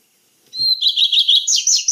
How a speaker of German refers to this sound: vielleicht hören wir uns den Gartenrotschwanz ja, mal unbedingt, an